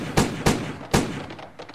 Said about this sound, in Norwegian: Hører du skuddene foran oss?